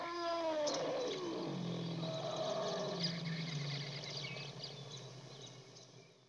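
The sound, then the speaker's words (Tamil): A loud, drawn-out elephant trumpeting cry of pain after it fell and broke its foreleg when the ground split, strained and wavering as it slides downward into a lower groaning rumble, then gradually fading. No voices. “வழியில் பிளிரி கொண்டிருந்த யானையை பார்த்து”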